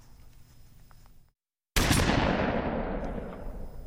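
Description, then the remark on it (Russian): A quiet outdoor hush drops to brief silence, then a single loud rifle shot, fired by a man at a wolf, cracks out and rolls away in a long, echoing tail that fades slowly. “Время между встречей с волком и выстрелом теперь показалось длиннее собственной жизни.”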